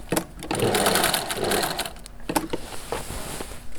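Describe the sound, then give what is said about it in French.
A sewing machine stitches with a steady, rapid mechanical whirring while mending a torn stage curtain, briefly slowing around a couple of sharp clicks midway before running on again at a gentler pace. “Alors voilà, quand je veux changer de direction, je lève le pied presseur.”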